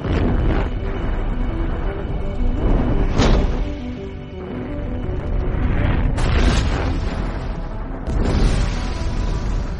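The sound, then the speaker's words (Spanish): Deep, heavy rumbling fills the whole stretch, punctuated by several loud booming blasts, like a series of explosions going off with a roaring, crackling tail between them. “En cualquier momento, cualquier parte del proceso puede salir mal y solo puede terminar de una manera, que es con una explosión.”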